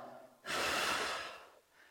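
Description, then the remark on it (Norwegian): A single forceful breath blown out, illustrating Jesus breathing on his disciples, a loud, airy whoosh lasting about a second before fading, with no talking around it. “han pusta på dem.”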